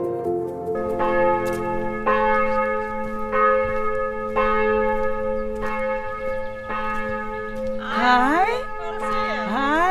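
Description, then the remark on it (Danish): Church bells ring out in a steady series of resonant strikes roughly every second, their long humming overtones blending, while voices talk faintly underneath toward the end. “Tak fordi I kommer, mens klokkerne ringer.”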